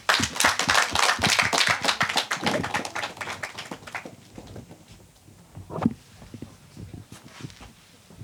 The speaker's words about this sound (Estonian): seega esimese tiimi võime siis aplausiga lavale kutsuda ja nad saavad juba edasi rääkida.